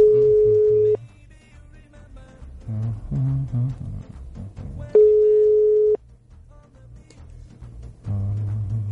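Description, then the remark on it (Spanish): A telephone ringback tone of an outgoing phone call to a woman sounds twice, each a steady one-second beep about four seconds apart, with a low murmur of background noise filling the gaps. “Así que eh, vamos allá, vamos a llamarla y a ver si me desde mi desde mi teléfono de Tosho, Tosho Telecom, estoy más orgulloso con eso.”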